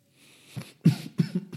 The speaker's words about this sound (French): Pardon, je tousse un peu.